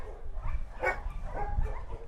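A couple of short dog barks and yips ring out, fairly faint, over a steady low rumbling background with no talking.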